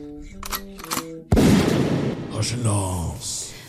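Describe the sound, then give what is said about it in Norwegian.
A voice speaks briefly, then a single loud shotgun blast cracks out and rumbles away, followed by fainter echoing bursts and a distorted voice-like sound. “Ludvig, gi meg hagla.”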